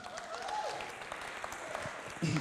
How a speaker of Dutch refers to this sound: Laten we Jezus een groot applaus geven.